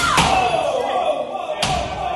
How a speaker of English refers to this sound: you can already hear the smashing. So right now they're smashing up against doors.